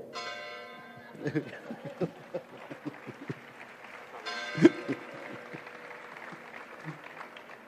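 A large bell, rung for Ambassador Zorrilla, rings out twice, each strike leaving a long shimmering tone that fades slowly, with a busy crowd clapping and murmuring in between.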